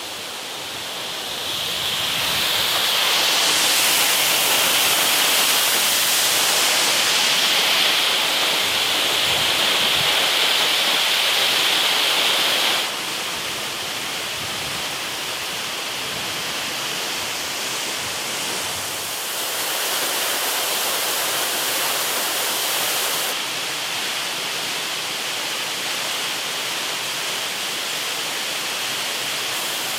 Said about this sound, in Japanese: 巨大な岩から流れ落ちる滝の豪快な音群馬県にある棚下不動の滝それではお聴きください